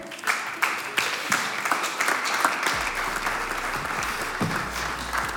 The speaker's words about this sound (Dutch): Applaus voor Maarten Dolman.